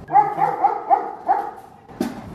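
A dog in a cage barks about five times in quick, yelping bursts over roughly a second and a half, at a customs check on the Mexican side of a border bridge, followed by a short sharp clank near the end.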